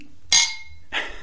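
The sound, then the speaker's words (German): Glasses clink together in a toast: a bright, ringing chime that slowly fades, followed a moment later by a second, softer clink. Nobody speaks. “Aber vorab müssen wir einmal anstoßen”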